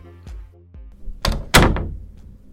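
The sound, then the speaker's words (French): A door is handled and opened for someone waiting downstairs, with a couple of dull low thunks, then pushed shut with two sharper, louder knocks and a brief rattle. No voices. “Amé, je suis en bas, tu peux venir m'ouvrir s'il te plaît”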